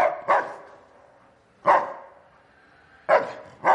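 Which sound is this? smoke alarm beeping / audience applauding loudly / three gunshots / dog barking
dog barking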